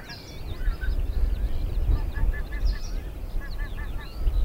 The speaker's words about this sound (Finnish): Juuri tällä hetkellä tulee hanhiparvi, noin 50 metrin päässä ja saattaa muuten mennä aika hyvin tuosta mikkien ohi, niin kuin onkin, kääntyvät siihen ja valkoposkihanhia taitavat olla, kyllä.